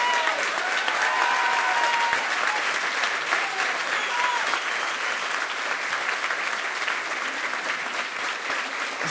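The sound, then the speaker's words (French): Sustained audience applause for the people leading a fight, a dense, steady wash of many hands clapping at a consistent loud level for the full stretch, with a few faint cheers or voices mixed into the crowd noise. “Vraiment, il faut les, les applaudir.”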